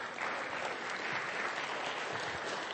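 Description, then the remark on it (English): Steady audience applause, a dense wash of many hands clapping at an even level throughout, with no one speaking over it; a final round of applause for today's angels. “Why don't we give one last round of applause”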